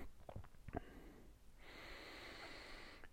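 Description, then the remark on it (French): A few sharp clicks and a rattle of handling, then a steady airy hiss as someone draws a long breath in from a Ventolin asthma inhaler for over a second. “Et je prends de la ventoline.”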